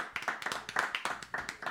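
Short round of applause: several hands clapping in quick, slightly uneven bursts at a moderate level, with no one talking over it.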